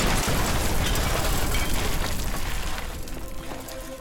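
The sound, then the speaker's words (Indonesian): A loud bomb explosion at a church in eastern Jakarta, with a heavy, noisy rumble that fills the whole clip and slowly fades over a few seconds, with debris-like crackling. No one speaks. “bom meledak di gereja Santa Ana dan satunya di gereja Batak, keduanya di kawasan timur Jakarta.”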